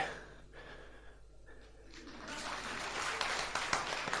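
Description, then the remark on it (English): An audience breaks into applause after a quiet couple of seconds, the clapping swelling into a steady, moderately loud patter with a few sharper individual claps standing out. “You may, while observing a certain theatrical decorum of reserve, applaud me.”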